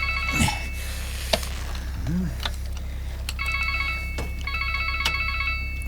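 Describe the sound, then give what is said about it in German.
A mobile phone rings with a repeating electronic trill, two bursts of stacked tones over a steady low hum, with a sharp breath and brief vocal sounds. “wer mag denn das sein? Hey, das ist Derek. Gib mir das Handy”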